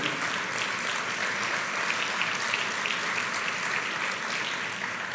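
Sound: audience applauding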